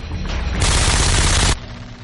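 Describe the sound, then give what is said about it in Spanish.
A man aims and fires a gunshot at another man: a sudden, harsh blast erupts over a low rumbling background, holding loud and noisy for about a second before cutting off abruptly, leaving a quieter hum behind. “Un hombre le apunta y le dispara.”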